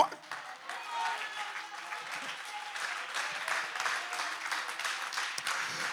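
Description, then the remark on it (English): An audience breaks into sustained, dense applause, many hands clapping steadily at a fairly even loudness for the whole stretch, with a few faint voices mixed into the crowd noise. “you might as well begin to clap those hands.”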